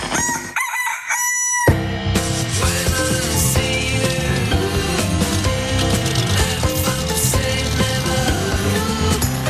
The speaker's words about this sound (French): Vous avez peut-être reconnu le générique de l'émission Nu et culotté, une série, on va dire, documentaire dans laquelle deux hommes partent en voyage sans vêtements et sans argent.